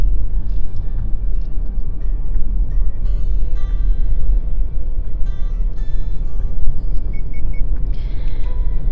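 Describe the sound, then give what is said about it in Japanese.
Steady low engine rumble and road noise from inside a moving car driving along a very narrow road with no oncoming cars, passing rice paddies along a river, continuous and fairly loud, with faint rattles and squeaks now and then and no talking. “ああそれにしても全然車とすれ違いませんねすごい細い道を走っているんですが車とすれ違いません”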